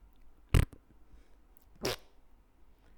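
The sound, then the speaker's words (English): Someone imitates a fart with their mouth: two short, raspy bursts about a second apart, the first punchier and the second a bit longer and breathier, with no talking. “Sounds like … farting to me.”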